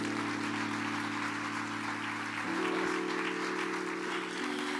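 A crowd at a church gathering applauds steadily after a prayer, a dense wash of many hands clapping at once, with a sustained low musical tone, like an organ chord, holding underneath and shifting pitch midway.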